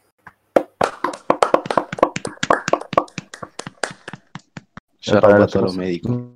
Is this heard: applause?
yes